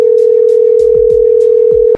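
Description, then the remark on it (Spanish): A phone ringing on an outgoing call to a woman in Michoacán who does not answer: a steady mid-pitched ringback tone holds for about two seconds and then cuts off, with faint low thuds underneath. “Oye, le estamos marcando a la de Michoacán, pero no contestan.”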